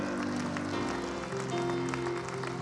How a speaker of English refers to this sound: I believe we ought to shout. I believe we ought to clap our hands. We ought to worship our God, for He is good.